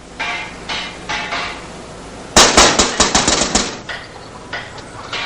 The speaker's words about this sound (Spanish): Se para ante el ventanal del salón y golpea el cristal con las manos.